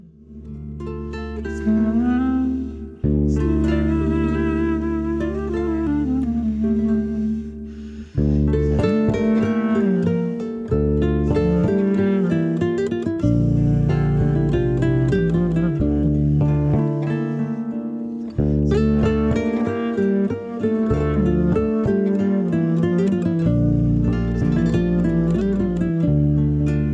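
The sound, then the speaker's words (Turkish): A full instrumental music passage plays loudly and steadily, with sustained harmonic tones, a strong bass line and rhythmic breaks between phrases, and no voices. “Şu parçayı bir beraber dinleyelim mi? … ….”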